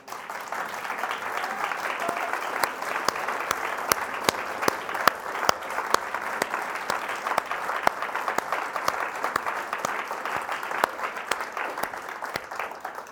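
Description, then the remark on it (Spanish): Sustained applause for Jesus during a sermon: a dense steady patter of many hands clapping at even loudness for several seconds, with sharper individual claps standing out from the wash. “Porque Él merece más que un aplauso.”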